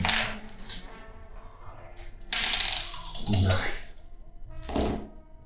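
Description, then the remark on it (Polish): Dice are rolled on a tabletop for a resistance roll, clattering in a few quick, rattling bursts, fairly loud, with a longer tumbling roll in the middle and a short final skitter. “Ty e, musisz jeszcze raz rzucić na swoją odporność, gdyż Czyli tą, tą, tą kondycję, tak?”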